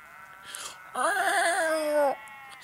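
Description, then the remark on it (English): A single sheep lets out a loud, drawn-out bleat with a shaky, wavering tone that lasts about a second, preceded by a faint, brief bleat-like sound. “Yo, these sheep are like scatting on the track. They're starting to sound like cats now, to me.”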